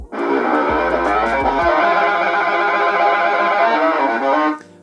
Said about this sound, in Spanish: que igual es la misma, con la misma distorsión, solo que aquí sí se escuchan los medios, aquí los medios son mucho más presentes que en la anterior.